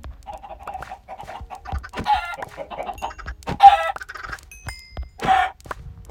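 Several chickens in a video game cluck in quick, uneven bursts, fairly loud, with a few sharper squawks rising above the steady clucking; no one speaks.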